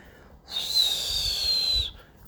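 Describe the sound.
Air squeals out of a full balloon in one continuous, high-pitched, whistling hiss lasting over a second, like a fart, with a faint low sputter underneath, fairly loud, then it stops.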